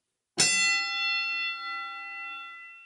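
A single sharp strike of the Kenny Bell, a hand bell rung with its lever, followed by a bright metallic tone that rings on steadily and slowly fades over a couple of seconds. No voices are heard.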